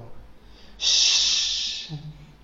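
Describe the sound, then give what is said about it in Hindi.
A voice imitates the character Hagrid's loud, sudden sob, like a wounded dog crying, a harsh breathy snort that bursts out and holds for about a second before fading, followed by a brief low murmur. “फिर अचानक हैग्रिड के मुंह से ऐसी आवाज़ निकली जैसे कोई घायल कुत्ता रो रहा हो”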